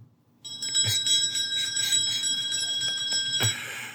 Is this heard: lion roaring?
no